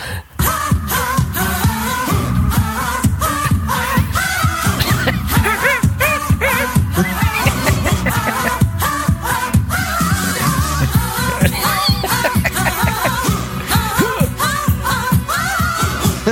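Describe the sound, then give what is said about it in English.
Loud, upbeat film song playing continuously, with a voice singing wordless nonsense syllables over a busy, rhythmic instrumental backing from start to finish. “We know we're not good at lyrics, so now we'll just make sounds, which kind of sounds like this.”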